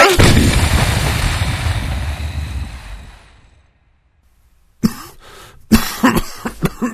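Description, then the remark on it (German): A loud Chinese firecracker explosion booms and rumbles away into silence, then harsh coughing bursts out in several rough fits. “Nein, aber ich glaube, die Explosion hat die übrigen Feuerwerkskörper entzündet.”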